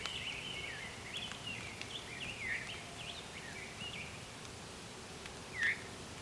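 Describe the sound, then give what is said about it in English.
An orchard oriole sings a quick, whistly, warbling song of bright phrases while chasing off a red-tailed hawk. It is fairly faint over soft outdoor background noise, with one louder note near the end. “Oh, or actually, no, that was an orchard oriole. Interesting. Because it had that song where, yeah, it's kind of whistly, but it was more like a warbling vireo and it interrupted itself.”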